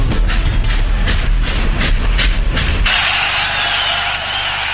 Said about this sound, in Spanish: La verdad, cómo suena el tren en la cuña que nos ha montado el compañero Juan Morales. Qué bien, qué buena, qué bien montada.